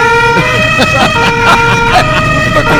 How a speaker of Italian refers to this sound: La sirena della polizia rompe la tranquillità di un normale martedì pomeriggio Bello. a Bologna. Oh, la volante su cui siamo a bordo sfreccia in direzione sfreccia. della Bolognina